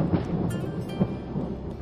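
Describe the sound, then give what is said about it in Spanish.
Low, continuous thunder rumbles through a stormy wash of rain-like noise, with a couple of brief swells in loudness, steady for the whole stretch with no voices. “La tormenta cada vez era más y más fuerte y ella notaba una presencia que se acercaba.”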